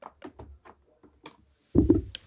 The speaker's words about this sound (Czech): listuje nebo eh, překládá tady jednotlivými tituly, takže to jsou takové ty zvuky, které tam slyšíte